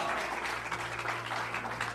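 A crowd claps steadily in applause offered to God, with dense overlapping handclaps forming a continuous, fairly loud wash of applause that holds for the full two seconds alongside a low steady hum.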